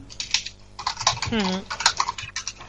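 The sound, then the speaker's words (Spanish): Rapid clatter of keys on a computer keyboard, irregular bursts of clicks throughout, with a brief voiced murmur partway through. “que estará cogiendo cosas porque se escucha. Uy, escribiendo.”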